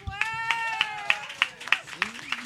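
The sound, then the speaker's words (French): Applause for a guest as steady rhythmic clapping, about eight sharp claps at an even beat, while a sustained, wavering voice-like tone carries on underneath. “Ben, et là-dessus, s'il vous plaît, mesdames et messieurs, une bonne main d'applaudissement pour notre invité,”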